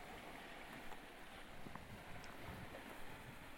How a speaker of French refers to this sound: On entend gronder l'océan qui percute l'enrochement.